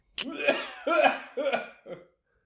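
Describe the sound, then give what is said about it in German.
A short fit of about four raspy coughs in quick succession, the last one quieter and briefer, from a person who had switched off their microphone. No one speaks. “Ach, du hast gehustet und dein Mikro ausgeschaltet?”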